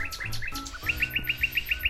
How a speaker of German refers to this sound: Hier singt eine Nachtigall vor uns und da ist tatsächlich noch eine zweite Nachtigall und ein Pirol ist zu hören.